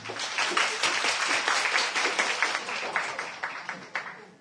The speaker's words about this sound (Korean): 박수 부탁드립니다.